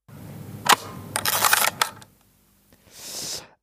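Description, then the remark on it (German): A Hasselblad camera shutter fires with one sharp mechanical clack, then the film is wound on in a loud, rasping ratchet burst, followed by a quieter whirring rasp after a short pause. No voices. “das war das, war das Auslösen und Eines äh, Spannen. Spannen des, des Filmes.”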